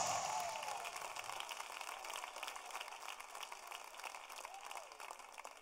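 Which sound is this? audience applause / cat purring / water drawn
audience applause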